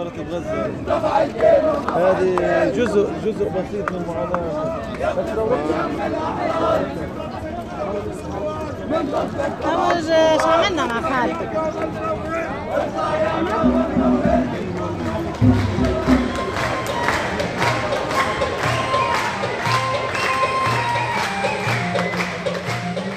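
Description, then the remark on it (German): A dense crowd at a street demonstration, loud and continuous, with overlapping voices, shouts and a jumble of chatter layered over steady background noise throughout. “Von Demonstration zu Konzert zu Demonstration.”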